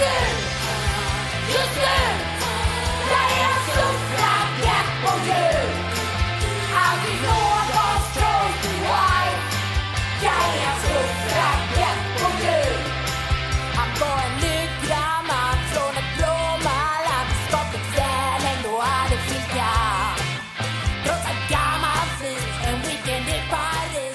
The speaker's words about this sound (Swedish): Hör på texten, …, modern svensk rockabilly.